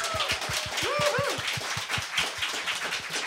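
audience applause

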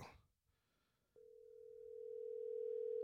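phone call ringing

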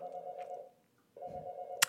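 doorbell ringing

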